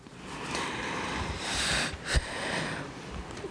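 A breathy, hissing intake builds for a couple of seconds, then breaks into one short, sharp sneeze burst, followed by a steady airy rustle. No one speaks.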